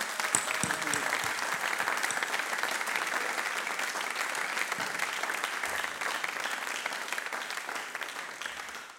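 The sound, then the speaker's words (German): Sustained audience applause at an ICF church service, given to thank the helpers: a dense steady wash of many hands clapping at an even loudness for several seconds before tapering off slightly at the end. “Lasst den Menschen mal einen richtigen Applaus geben hier, ICF.”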